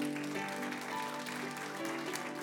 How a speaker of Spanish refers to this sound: Denles aplauso fuerte a Cristo porque Él es bueno.